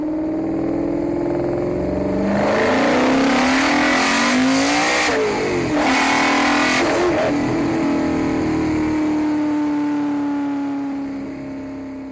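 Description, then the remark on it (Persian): The 7-litre V8 engine of a Ford GT40 Mk II racing car, raced at Le Mans in 1966 and capable of 310 km/h, rumbles, rising into two sharp, loud throttle revs in the middle before settling back to a steady drone that fades at the end. No talking. “سال 66 و برای بار سوم با ماشینای ارتقا یافته اومدن لومان جی تی چهل مارک دو ماشینی که سرعتش به 310 کیلومتر بر ساعت میرسید به صدای موتور 7 لیتریش گوش بدین”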